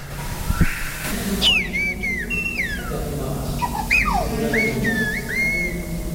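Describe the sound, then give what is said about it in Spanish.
Clear, melodic whistling of the Zapotec language, a tonal language, played from a recording: sliding, pitch-varying phrases in several bursts over a steady low background hum, with no talking. “Eso que se puede escuchar es un disco que yo hice sobre el silbido zapoteco, entonces, como es una lengua tonal, se puede traducir al silbido, entonces yo hice esta eh, traducción.”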